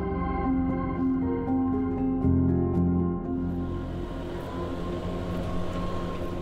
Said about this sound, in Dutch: We zijn in Zoersel. Op de achtergrond hoor je de bladblazer die de laatste herfstblaren aan het verwijderen is van deze fijne, leuke straat.